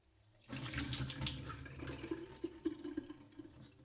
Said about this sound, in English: I pour the soaked almonds into a strainer and I rinse them under running water.